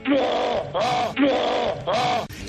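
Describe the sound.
A woman imitates her husband's snoring, with four loud, rasping, throaty bursts in a steady back-and-forth rhythm like drawn-in and pushed-out breaths, each lasting about half a second.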